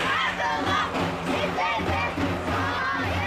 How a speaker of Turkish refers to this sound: Kadına yönelik şiddete karşı uluslararası mücadele günü öncesi sokaklardan ses yükseltti kadınlar. Kadın cinayetleri durdurulabilir ve kadına şiddet önlenebilir sloganlarıyla.